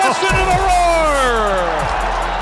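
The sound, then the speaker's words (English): A loud arena crowd roars continuously in a dense wash of noise at a Fighting Illini basketball game, after Frazier's long buzzer-beating three-pointer ends the half, with a shouting voice sliding downward in pitch above the din. “listen to the roar.”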